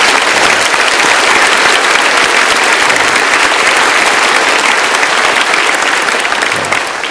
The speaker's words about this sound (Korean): 영광의 박수는 사실 하나님 앞에 드리는 건데 하나님의 영광의 빛, 을 비춰주는 사람들이잖아요. 그래서 그분들에게도 우리 감사합니다라고 우리 박수하겠습니다.